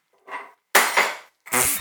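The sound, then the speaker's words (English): A drinking glass smashes on a hard floor: a faint knock, then a loud bright crash with a second burst of shards, and another clattering spray of pieces. No talking. “I guess we're funny as I just break my glass on the floor.”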